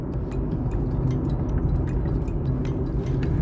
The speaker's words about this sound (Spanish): Voy a tomar un poquito de agua.